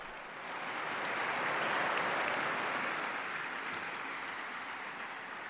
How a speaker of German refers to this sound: ein Applaus für die neuen Seligen.